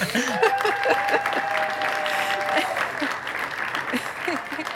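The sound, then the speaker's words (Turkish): A steady burst of audience applause for Tilda Swinton: dense clapping throughout with scattered voices and a brief tonal whistle-like sound mixed in near the start. “Tilda Smith'in için güzel bir alkış alabilir miyiz şu an?”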